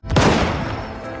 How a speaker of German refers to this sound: Und das ist Schicksal, denn er wird Zeuge davon, wie Wilderer eine Tigermutter erschießen.